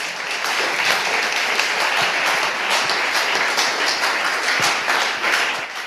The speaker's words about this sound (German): Applaus